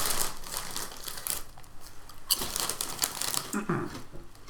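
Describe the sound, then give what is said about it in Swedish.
A crinkly plastic chips bag rustles and crackles in dense bursts, the crisp crackling continuing for several seconds as it's handled and set down, with no talking. “Den låter för mycket. Jag sätter ner den.”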